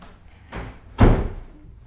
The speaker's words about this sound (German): so, jetzt ging die Tür. Jetzt ging die Tür, jetzt kommt jemand durchgelaufen, mein Mann.